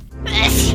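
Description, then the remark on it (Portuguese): A single loud sneeze, a breathy hiss that swells quickly and cuts off after about half a second, with no talking around it. “Saúde!”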